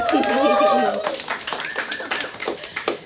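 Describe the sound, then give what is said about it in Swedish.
A small group breaks into applause: brisk, scattered hand claps that build into a steady patter for a couple of seconds, opening with a brief voiced whoop or cheer. “Ja, en applåd!”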